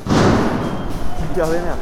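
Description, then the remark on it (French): Heavy booming blasts from Greek homemade firecrackers made from camping-gas canisters, which also throw a huge flame, thud loudly over dense crowd noise at a protest with burning barricades, with a voice shouting briefly near the end. “Voilà, ça c'est le son des pétards artisanaux grecs qui sont en fait des camping-gaz et qui en plus de faire beaucoup de bruit font une flamme énorme.”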